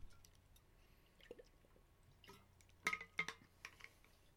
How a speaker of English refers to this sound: All right. Hold let me get a drink of water. I'm thirsty. Whew.